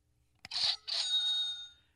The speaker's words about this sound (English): Yes, that was a cash register.